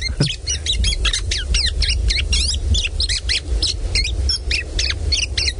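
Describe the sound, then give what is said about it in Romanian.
A thrush nightingale sings loudly, a rapid, unbroken run of sharp, repeated notes and rattling phrases over a low background rumble, with no voices. “Privighetoarea de zăvoi, avem două tipuri de privighetori.”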